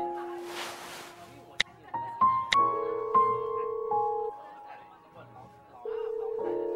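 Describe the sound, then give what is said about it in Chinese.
A phone call being placed: sharp clicks and a few short electronic dialing beeps, then a steady, buzzing telephone ringing tone that repeats in moderately loud, evenly spaced bursts with a soft murmur underneath. “算了，我还是给他打个电话问问吧，说不定他是有什么事耽误了呢。”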